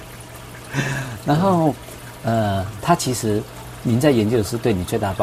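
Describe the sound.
A steady trickle of water from a fish tank in a research room, like a small waterfall, runs as a continuous splashing hiss beneath people talking throughout.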